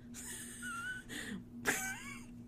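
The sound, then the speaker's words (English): A dog on the floor whines in thin, high, wavering tones over about two and a half seconds, broken by breathy sighs, with a steady low hum in the background and no talking. “there's a lot of dog sounds happening i know you're excited”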